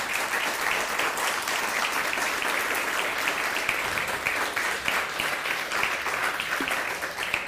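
Steady crowd applause for the Almighty fills the whole stretch, a dense, continuous patter of many hands clapping at an even loudness with no voices standing out.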